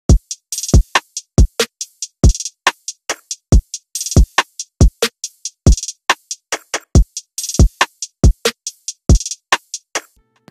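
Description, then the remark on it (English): A drum kit plays a steady, driving beat in a drum session: punchy kick drums and crisp snare hits under bright, sizzling hi-hats and cymbal crashes, loud, with no voices. “The first one is a bass guitar, and the second one is a drum session.”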